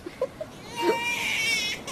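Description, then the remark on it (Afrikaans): A hungry baby, probably also wet, starts crying after a few short fussy squeaks, rising into one sustained, high-pitched wail with a strained, harmonic tone that holds steady to the end. “Daar gaan die wekker af. Dis nou honger en seker nat ook.”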